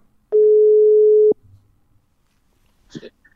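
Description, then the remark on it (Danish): A single loud, steady telephone tone holds for about a second as a call is placed from a phone, then cuts off, followed by quiet background noise and a brief clatter near the end. “Og nu har jeg lige fat på min telefon her. Så vil vi lige se, hvad der sker.”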